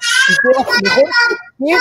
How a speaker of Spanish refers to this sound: Hay un bebé que está llorando, pero hace. Qué buenos pulmones, qué buenos pulmones.